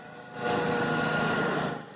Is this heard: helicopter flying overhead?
yes